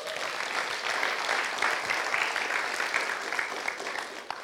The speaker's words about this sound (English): Give God a hand clap.